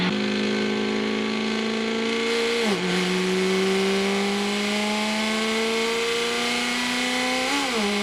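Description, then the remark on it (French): A car engine roars steadily at high speed, its pitch climbing gradually with two brief dips as gears shift, then rising again. Loud and continuous, with no voices. “Il y a 20% et il y a des vitesses folles qui sont atteintes déjà.”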